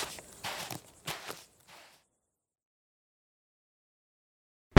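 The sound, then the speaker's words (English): Heavy footsteps stomp off quickly toward a tent, four or five thudding steps growing fainter before silence, followed by a sudden loud burst of noise at the very end. “And you see the Fearbold, like, storm off toward the tent, going, I can't believe I'm doing this stupid bullshit.”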